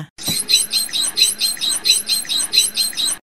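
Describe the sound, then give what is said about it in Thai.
A bottlenose dolphin communicates with a quick, steady run of about a dozen sharp, high-pitched, whistle-like squeaky chirps, loud, with no talking. “โลมาเป็นสัตว์ที่ฉลาดมากเลยนะคะมาสื่อสารกันโดยใช้เสียงคล้ายผิวปาก หรือว่าเสียงร้องแหลมๆ แบบนี้ค่ะ”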